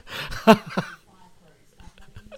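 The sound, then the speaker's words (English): A short fit of harsh, throaty coughing, two or three rough bursts, then the sound drops to near silence with only faint murmuring behind it. “stop with what the, the extreme D because it apparently causes you to cough up furballs.”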